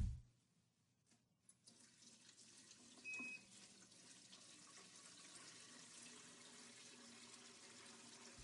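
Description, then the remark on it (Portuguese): A kitchen tap is opened and water runs steadily into a coffee-maker jug, a continuous hiss and splash that builds after a brief click and keeps flowing to the end. “na cafeteira, pega a jarra, abre a torneira.”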